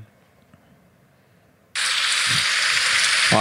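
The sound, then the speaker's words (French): A recorded relaxation sound of rain on leaves: after a moment of near silence, rain falling on leaves starts abruptly, a loud, steady, dense hiss of countless drops that continues unbroken with no voices. “Plus sur les feuilles.”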